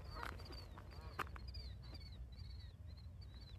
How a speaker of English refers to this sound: well, you might be able to hear some birds overhead. There you go. You can hear my buddy Anthony's favorite bird.